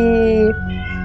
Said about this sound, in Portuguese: um gato. Um gato. Todo mundo ouviu meu gato, né, gente? Pior é que ele tá mó longe.